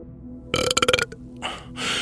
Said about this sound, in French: C'était le dernier rototo de la dernière canette.